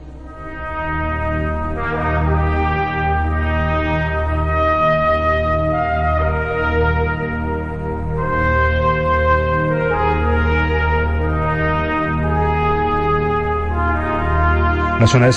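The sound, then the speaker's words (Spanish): A military-style orchestral film theme for an American Civil War army setting, with a bright bugle line carrying a slow, stately melody over sustained low brass and strings, played steadily and fairly loud with no voices. “esa, corneta como más que estamos en, el ejército.”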